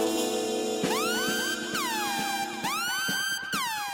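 A dramatic siren sound effect like the one in the film Kill Bill, its bright wailing tone swooping down in quick repeated cycles, about four in a row, loud with no voices over it.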